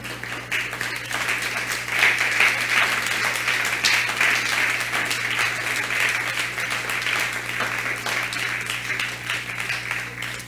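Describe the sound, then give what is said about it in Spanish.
An audience at a religious service breaks into sustained applause offered to the Eternal, a dense, steady wash of many hands clapping for about ten seconds, loud and even throughout with a low constant hum underneath. “Dele un aplauso por eso al Eterno.”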